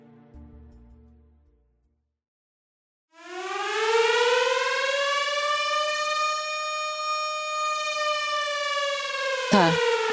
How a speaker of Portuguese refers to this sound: bom, aquele alarme forte começa a tocar de novo.